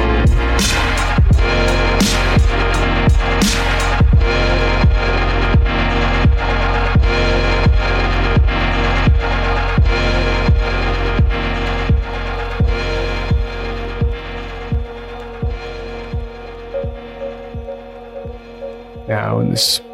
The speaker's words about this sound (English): And big inhale. Getting ready for that hum to release the nitric oxide and feel that body vibrate. Here we go.